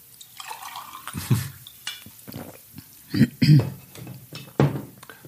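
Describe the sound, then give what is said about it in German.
Water splashes and trickles into a glass in a few short bursts, with light clinks of glassware and soft voices murmuring around it. “Kann ich noch so einen Schluck Wasser?”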